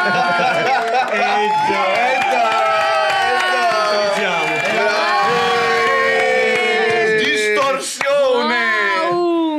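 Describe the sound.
An applause sound effect, played as a band's full lineup is introduced: a loud, unbroken roar of a crowd cheering and shouting, many voices overlapping and whooping steadily for nearly ten seconds.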